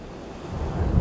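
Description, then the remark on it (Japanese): Steady sea surf rumbles with a low, swelling wash that builds toward the end, mixed with gusty wind buffeting the microphone; no voices. “やっぱ魅力的ですね海は見てるだけ今こうやって海を見ながら喋らせてもうてんねんけど”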